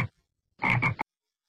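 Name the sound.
frog croaking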